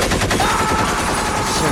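Rapid, continuous bursts of automatic gunfire, loud and dense, crackling steadily for the whole short stretch with no pauses or voices.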